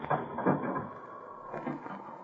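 The door of a house on the edge of the town of Sterling is unlocked and opened, with a few quiet rattling clicks from the latch and a soft scraping swing, heard at low volume with no talking.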